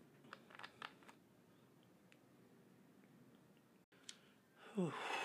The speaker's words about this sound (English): So, one moment. Let me just take a sip of this.